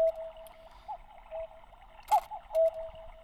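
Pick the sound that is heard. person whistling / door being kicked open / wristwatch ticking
wristwatch ticking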